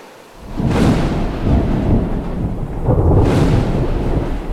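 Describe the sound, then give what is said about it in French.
Deep rolling thunder rumbles through a fierce midday storm, swelling in two heavy waves with a broad crackling wash, loud, with no voices present. “Mais à la mi-journée, un orage effroyable le surprend et il revient en courant vers sa hutte.”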